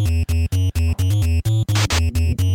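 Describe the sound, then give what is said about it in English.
Bright, buzzy chiptune music from an arcade game in an NES retro style, with short choppy square-wave notes in a quick steady rhythm and a brief hissy noise burst near the end. No one speaks. “This thing had weird, weirder music. It's very NES, but here it is”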